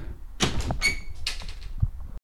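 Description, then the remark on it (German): A door to a cellar is opened: a rattle of the handle, a short squeaky hinge creak, some shuffling, then a dull thump as it swings to. No one speaks. “Moment, wenn ich jetzt durch diese Tür.”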